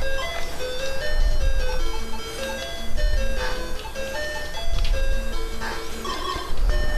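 A bright, chiptune-style melody of square-wave beeps from a Game Boy game plays in a steady rhythm, loud, with low rumbling bumps underneath and no one talking.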